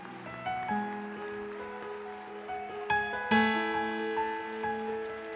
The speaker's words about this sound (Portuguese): Quem pode aplaudir o Senhor pela bondade dele? Aplauda a Deus pela bondade dele.